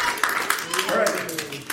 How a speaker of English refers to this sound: let's clap. Yay. That's good.